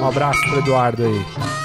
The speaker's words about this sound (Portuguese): Vamos brindar essa cervejinha aqui, então?